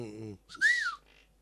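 A short voiced sound is followed by a person whistling a single clear call, a smooth note that rises and then falls, fairly loud, ending quickly.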